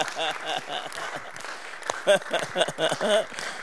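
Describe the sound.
An audience claps steadily throughout, a dense wash of hand claps running underneath a man's voice that keeps talking over it.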